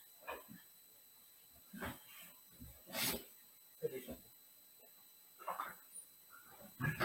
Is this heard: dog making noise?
yes